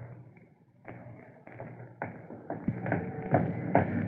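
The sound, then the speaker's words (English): A building's furnace control knob being turned to get heat, giving a steady series of sharp clicks about every half second that grow slightly louder, with a low hum underneath and no talking. “Where is that control? Hmm, here it is. I'll just turn it this way.”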